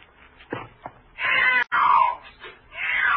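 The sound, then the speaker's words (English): A thin, black cat that came down a chimney yowls loudly in long, drawn-out wails, several rising and falling cries broken by short pauses and a few brief thumps at the start, with no one talking. “Then one morning, down my chimney, came a thin, black, powerful cat who seemed to think me the trespasser.”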